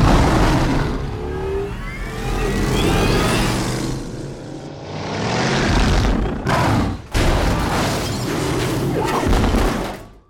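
car engine revving

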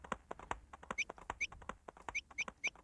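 bird chirping

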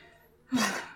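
dog coughing

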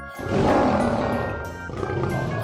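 lion roaring

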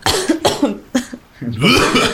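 coughing

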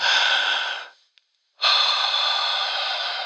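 deep breath

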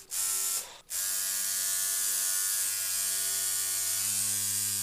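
tattoo machine buzzing

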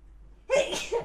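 sneeze

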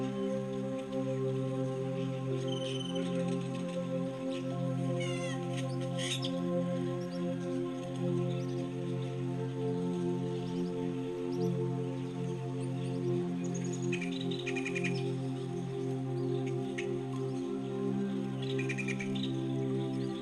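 great-tailed grackle calls

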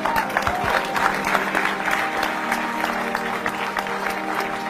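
audience clapping

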